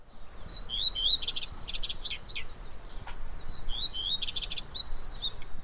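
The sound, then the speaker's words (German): A common redstart sings two short phrases, each a few clear whistled notes running into a quick, scratchy trill, heard alone against a soft, steady outdoor hiss. “Dann kannst du schon 90 Minuten vorher, also 4 Uhr, den ersten Vogel hören und das ist der Gartenrotschwanz.”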